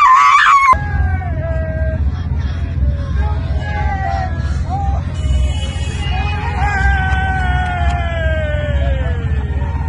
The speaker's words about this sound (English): It's the eternal scream from the woman who was screaming on inauguration day that went viral has just echoed for the last four years and probably four more.